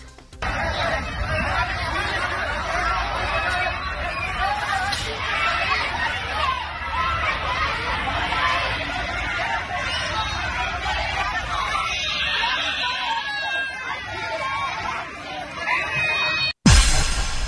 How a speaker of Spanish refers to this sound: Se escuchan llorar a los niños y está muy gacho que haya tanta violencia en los estados ya